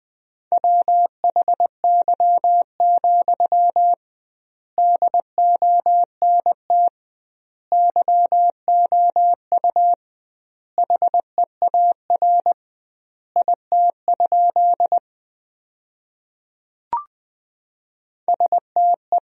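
A single steady-pitched beep keyed in quick Morse code at about 20 words per minute with double word spacing, sending sentences built from the 300 most common words, grouped into words separated by short pauses, with one brief click near the end.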